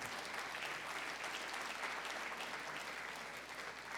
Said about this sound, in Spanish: Démosle un aplauso al Señor, hermano.